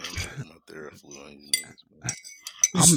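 Glasses clink together in a toast, a bright ringing chink near the end after a stretch of voices talking, with a softer clatter of tableware earlier.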